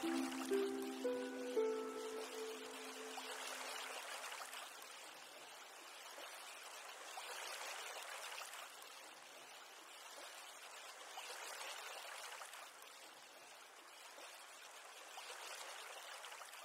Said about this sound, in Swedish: De där vågorna spelade vi in eh, i Grekland, tror jag. Ja, det vet vi inte riktigt. För vi spelade in med våra mobiler.